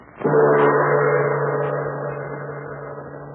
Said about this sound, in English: Listen to this. You don't need to have an airplane spotter to tell you what this sound means. Yes, that's an airplane engine,